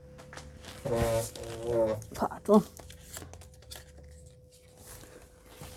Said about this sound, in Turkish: Sandalyemin gıcırdasını da duydunuz.